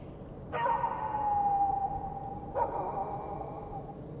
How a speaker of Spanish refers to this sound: Un silencio nocturno cubre el ambiente puede escucharse el lamento de un perro desvaneciéndose.